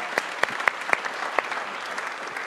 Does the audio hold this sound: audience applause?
yes